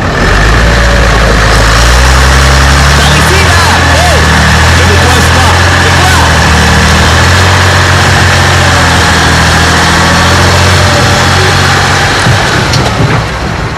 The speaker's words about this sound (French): Allez, faites démarrer la caravane, les camions. Allez-y. Nous allons directement par la petite piste vers la vallée d'Andiana. Allez, tous les camions doivent passer là.